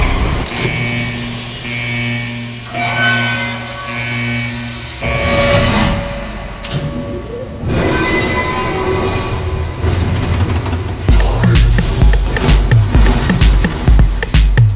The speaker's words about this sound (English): It's time now for me to open up the … Vault. Vault door cycling sequence initiated. Please stand back.